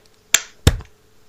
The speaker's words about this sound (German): Und jetzt klatschen wir einmal wieder. Okay. Eins, zwei. Oh. Eins, zwei, drei.